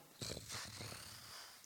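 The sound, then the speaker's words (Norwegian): A voice imitates a wall crumbling as a couple of meters of it collapse: a rough growling rumble of bursts that trails off into a steady breathy hiss. “Det, det er lyden av at det raser.”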